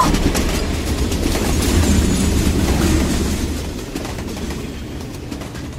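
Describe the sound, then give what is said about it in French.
A train rumbles steadily past, its wheels rattling and clacking over the rails in a continuous dense roar that eases slightly toward the end. No voices. “Je disais donc qu'en 1967, et plus précisément le 28 mai, le train commercial français le plus rapide d'Europe a été mis en service.”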